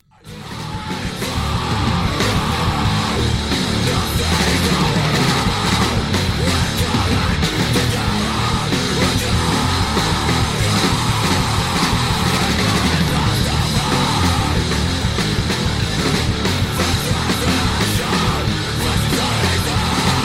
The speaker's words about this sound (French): ce que je voulais dire euh, un, truc très ambiante euh, ambiance assez lourde ouais, ouais. c'est ça je vais vous faire écouter un morceau vous allez très vite voir de quoi on parle ok